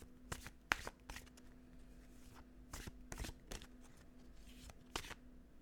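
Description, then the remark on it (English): A deck of oracle cards being shuffled, a series of quick papery riffles and snaps spaced irregularly over several seconds, with a faint steady hum underneath and no talking. “So let's give them a little shuffle.”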